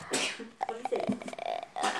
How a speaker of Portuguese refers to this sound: É. Tô espirrando.